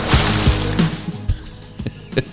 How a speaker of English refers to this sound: so my noise so, for my transition noise is a splash.